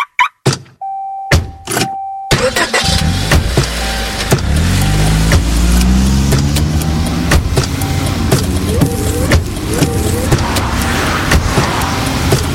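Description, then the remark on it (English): A car door thunks shut and a steady electronic chime sounds, then the engine starts and the car drives off, its engine tone climbing as it accelerates, with scattered clicks and no talking. “Driving has a rhythm all its own.”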